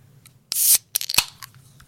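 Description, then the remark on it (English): A tall drink can cracks open with a sharp snap and a short burst of fizzing hiss, followed by a few quick metallic clicks and crackles, with no talking. “can I crack this thing open?”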